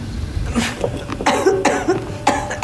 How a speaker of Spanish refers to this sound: Adelante. Mm. Ahora tosa.